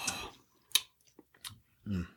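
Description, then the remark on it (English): Quiet sips of a hot winter drink flavored with anise: a few short, airy slurps spaced apart, with faint mouth clicks between them and a brief murmured voice at the end. “Let's uh, take a sip and see what we think.”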